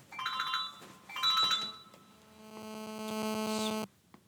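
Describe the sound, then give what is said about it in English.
A mobile phone rings with an electronic ringtone for an incoming call from a London spammer: two short tonal bursts, then a longer buzzing, pulsing tone that cuts off abruptly. Clear, with no one talking over it. “Phone never rings.”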